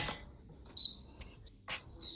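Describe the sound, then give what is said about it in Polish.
A capsule coffee machine beeping while being run with water to clean it: short, thin, high-pitched electronic tones spaced well apart, with brief bursts of clattering noise in between and no voices. “Dalej piszczymy. No to żeby już przestać piszczeć, to musimy nacisnąć ten przycisk yy, środkowy albo któryś.”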